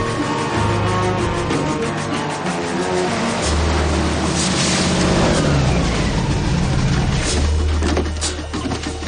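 A loud, steady engine roar with a deep droning hum and broad rushing noise from an airboat's propeller engine running continuously as it travels to an area of murky water, its pitch shifting slightly over the span.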